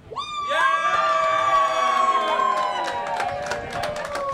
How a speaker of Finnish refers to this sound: Jos te haluatte äänenne meidän seuraavaa podcast jaksoa niin voitte nyt huutaa.